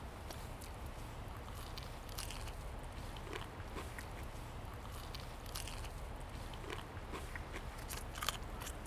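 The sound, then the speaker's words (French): Crunchy chewing of KFC fried chicken, with crisp bites and crackles repeating irregularly over a low rumble of background noise; no one speaks. “Nous autres, qui mange du poulet de PFK.”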